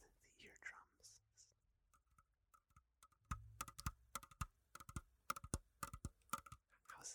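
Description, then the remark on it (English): Soft whispering gives way to a run of light, quick tapping on a kitchen counter, irregular clusters of crisp taps that grow louder and more rapid toward the end. “First things first, we're going to start off with with some some light tapping to stimulate”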